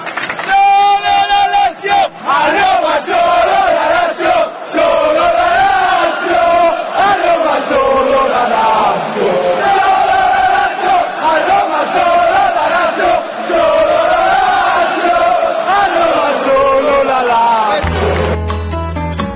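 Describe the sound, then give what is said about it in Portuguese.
A large crowd of Inter supporters at a Lazio versus Inter football match chants in unison in favour of the Lazio supporters, to offend Roma fans. It is a loud sustained mass of voices with rising and falling melodic swells that carries on steadily for nearly twenty seconds before cutting off abruptly. “Lazio versus Inter, a, a, a, a torcida da Inter canta em favor da torcida da Lazio para ofender os romanistas.”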